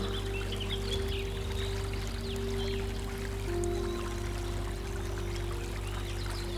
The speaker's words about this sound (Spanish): Escuchas el sonido del agua que se mueve constantemente río abajo.